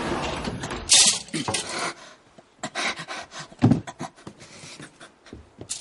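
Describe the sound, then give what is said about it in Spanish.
A wardrobe door is pulled open at home and two suitcases are shifted about on a bed: a sharp wooden clack, then scraping, rubbing and rustling with a dull thump partway through. No one speaks. “En casa, Walter pone dos maletas sobre su cama y abre el armario.”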